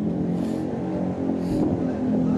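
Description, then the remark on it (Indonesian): A loud motorcycle exhaust rumbles and revs continuously, its throaty engine drone holding steady with slight surges in pitch throughout. “motor pada berisik ya kenapa sih orang-orang suka pada kenal pot berisik ya”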